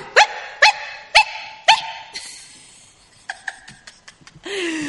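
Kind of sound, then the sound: animal, small dog barking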